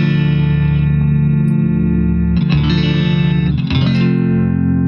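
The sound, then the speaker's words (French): An electric guitar played through a Kraken Buffer Booster pedal, ringing out loud sustained chords with a slightly gritty edge, changing chords twice with brief strums. No talking. “Et enfin, bah, attends, attends, on s'écoute la Kraken Buffer Booster.”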